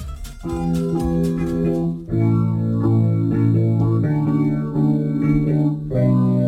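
A loud, upbeat Spanish-language parody of a pop song, with lyrics about heat waves, plays continuously, full instrumental backing with steady chords and bright layered tones, briefly dropping out for a moment before kicking back in.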